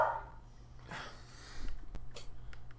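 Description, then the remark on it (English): A pet dog barks faintly, a short sharp yip followed by a few huffing, breathy sounds and soft clicks, with no one talking over it. “I'm sorry, I don't know why my dog's barking.”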